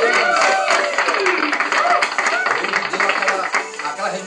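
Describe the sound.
A steady wash of crowd applause and cheering, played from a sound desk, fills the whole stretch, loud and dense, with excited voices mixed in among the clapping.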